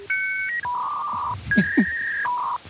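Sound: dial-up modem dialing tones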